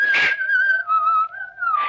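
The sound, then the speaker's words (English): Someone down the road whistles a slow melody, the fate theme from Carmen, in long, sustained notes that glide gently between pitches, clear and steady, with soft breathy bursts at the start and end and no talking. “Just somebody whistling down the road.”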